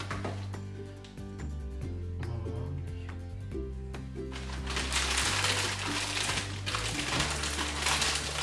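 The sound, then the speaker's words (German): A kitchen mixer whirs steadily, working harder after another handful of ingredients is added, its motor pitch dipping and shifting as it strains, then turning into a louder, gritty grinding roar in the second half. “Mixer muss dann jetzt ein bisschen mehr arbeiten.”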